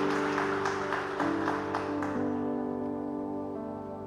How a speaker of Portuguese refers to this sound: Eu quero que você dê uma salva de palmas junto comigo. Vamos juntos nessa noite.